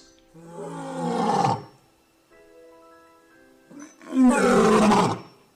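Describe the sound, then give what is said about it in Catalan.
A lion roars twice, loud, each roar a deep, rough bellow lasting over a second, separated by a quieter, steady tonal stretch. “Se diu que hi havia lleons.”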